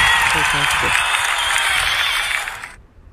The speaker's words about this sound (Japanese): なんかすごい拍手を送りました